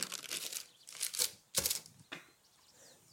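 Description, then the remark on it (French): Crisp crinkling of parchment paper, a few bursts of rustling and crackling, with a brief pause and a final soft crumple as a small sheet is laid into a dish before rolled fish fillets are placed on it. “Je le pose dans mon plat et ce plat, je n'oublie pas de mettre une petite feuille de papier sulfurisé pour pas que ça colle.”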